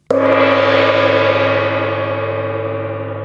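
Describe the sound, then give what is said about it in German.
A single gong strike with a sharp onset, then a loud, rich metallic shimmer of many sustained overtones that slowly fades but keeps ringing for several seconds, with no voices. “Das war der Gong.”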